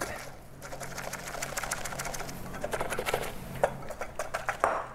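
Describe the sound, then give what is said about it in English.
Rapid, steady clicking and scraping of a whisk beating a small amount of egg whites by hand in a bowl toward stiff peaks, a fast rhythmic churn that continues for the whole stretch, with a few sharper clinks near the end. “I'm gonna whisk this up until it reaches stiff peaks”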